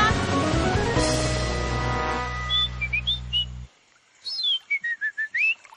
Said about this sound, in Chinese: 哦哦，前面有三条河， 我们必须听口哨小鸭的声音，才知道走哪条河。 仔细听好喽。